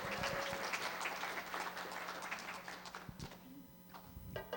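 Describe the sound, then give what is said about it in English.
An audience applauds a pastor with dense, steady clapping, gradually thinning toward the end as a few scattered claps remain. “Give it up for”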